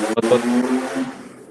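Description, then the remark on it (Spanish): A loud car roars past, its engine noise rising quickly, holding a broad growling tone, then fading away over about a second. “Perdón, pasó un carro haciendo mucho ruido.”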